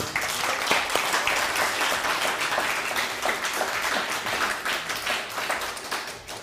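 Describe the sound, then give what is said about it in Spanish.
A crowd applauds steadily, dense overlapping claps forming a loud, sustained wash of sound that holds for several seconds with slight swells before beginning to thin out at the end. “Un fuerte aplauso a todos ellos.”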